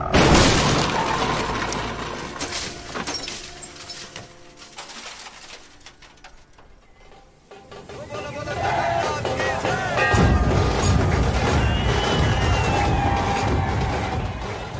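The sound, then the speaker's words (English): A loud, chaotic car crash as a Morris car, brakes squealing and tyres screeching, slides into the side of a bullock cart on a road: metal crunching and glass shattering in a dense burst, a brief lull, then more clattering debris and tinkling fragments that keep going for several seconds. “The Rolls just manages to squeeze by, but the Morris brakes squealing, tyres screeching, slithers into the side of the thing with a crunch of metal and tinkle of broken glass.”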